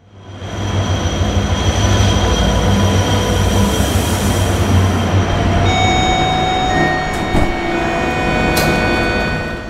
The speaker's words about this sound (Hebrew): נוסעים נכבדים, הרכבת תמשיך בנסיעתה לתחנה הבאה, שנת 2026.